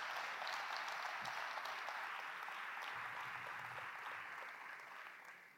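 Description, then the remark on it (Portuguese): An audience claps together in sustained, dense applause for the Lord Jesus during an evening service, a steady wash of many hands that holds for several seconds before tapering slightly at the end, with no voices heard over it. “Quem pode dar um aplauso ao Senhor Jesus nessa, nessa noite?”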